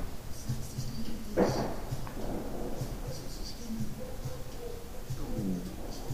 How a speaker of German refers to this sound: Das war mein Magen gerade.